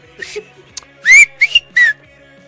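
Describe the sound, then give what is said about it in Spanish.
A person whistles a short signal call meaning "I'm here", a few quick rising-and-falling whistled notes in a bright burst, the last two bursts loudest, with faint background noise underneath. “Y yo estoy chiflando, güey.”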